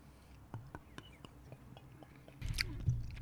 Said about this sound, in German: ja, sollen wir die erstmal antrinken? Ja, nehmen wir mal einen Schluck. Prost.